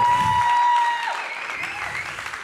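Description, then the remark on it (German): A live church audience applauds to welcome a young woman onto the stage, with dense, steady clapping that starts loud and eases slightly as it continues, accompanied by a faint sustained musical tone in the background. “Begrüßt mal mit einem tosenden Applaus hier vorne bei mir auf der Bühne.”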